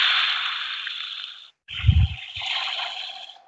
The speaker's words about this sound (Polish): I tutaj są takie otwory, w które dziecko musi włożyć rączkę i na przykład jeżeli mamy piratów, to tutaj słychać pluski wody, szum wody